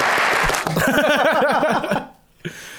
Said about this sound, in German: Und wenn der Techniker gut ist, dann ist jetzt Applaus eigentlich.